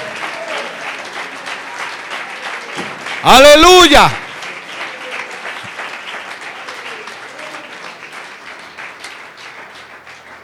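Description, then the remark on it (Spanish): A church audience applauds for Christ steadily throughout, dense clapping filling the whole stretch, while a loud voice shouts out briefly over it near the middle. “Dele ese aplauso a Cristo el Señor.”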